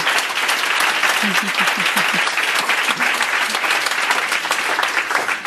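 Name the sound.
audience applause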